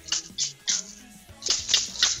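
A chinchín rattle shaken in short bursts, about six bright, jangly shakes in two loose groups with a brief pause between, moderately loud, no voices.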